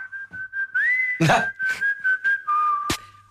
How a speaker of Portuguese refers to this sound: Ou ainda, se outro tipo de esperança não sair daqui, pelo menos para efeitos de comemorar o poder épico de um assobio no início de uma canção. Vamos ouvir outra vez o assobio do início da canção.